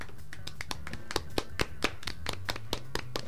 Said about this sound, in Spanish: Pero, pero, pero, aplauso en la sala.